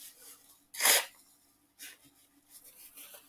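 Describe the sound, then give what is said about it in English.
Someone blows their nose: one loud, forceful burst of rushing air, then a shorter, softer second blow and some faint sniffly noise, with no talking. “Let me blow my nose”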